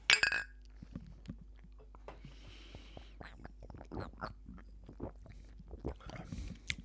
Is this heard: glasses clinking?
yes